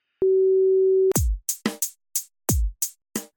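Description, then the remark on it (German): A steady, loud beep tone holds for about a second, followed by a quick, irregular run of about eight sharp percussive hits, some with deep thumps. No one speaks. “Und ich würde sagen, damit legen wir auch gleich nach dem Piepton los.”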